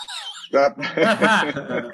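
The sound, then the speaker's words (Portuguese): A parrot gives a thin, chirpy call, then breaks into loud, harsh squawking that runs raspy and almost voice-like for over a second. “Pode falar, falar até o papagaio fala.”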